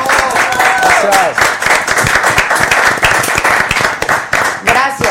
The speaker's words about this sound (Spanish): Buenísimo. Aplausos a todos.